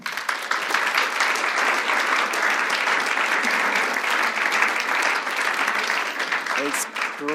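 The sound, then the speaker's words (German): Sustained, dense applause from an audience welcoming two guests, many hands clapping steadily and loudly for several seconds with no pauses, a brief voice surfacing near the end. “In dem Sinne ganz herzlich willkommen, einen herzlichen Applaus für euch zwei.”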